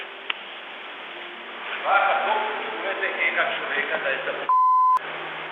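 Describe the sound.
Voices chatter on a narrow, phone-like line during an interview, then a single loud, steady electronic phone tone rings out for about half a second before the talk resumes.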